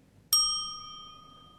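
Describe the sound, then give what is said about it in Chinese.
A single bright ding chime, used as a cue in a children's English lesson to signal when to start speaking, strikes with a sharp attack, its clear high tone slowly fading into a long ringing tail. No voices, only a faint low background hum. “听到丁的声音后呢，你就可以开始说啦。”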